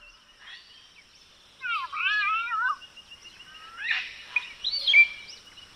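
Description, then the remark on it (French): A palm cockatoo (black cockatoo) calls twice, first a warbling, wavering whistle and then a rougher, rising squawk, clear against a quiet background with no talking. “Et justement, notre deuxième oiseau en est probablement l'exemple le plus surprenant, parce que le cacatoès noir, pour sa part, a appris à se servir d'instruments.”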